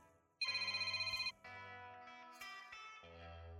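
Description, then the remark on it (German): A phone rings with a bright electronic ringtone, a buzzing warbled tone followed by a few changing melodic notes, loud, with no one speaking. “Oh, mein Telefon. Augenblick bitte.”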